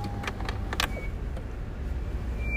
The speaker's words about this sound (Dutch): Nou, mijn remmen piepen een beetje. even parkeren.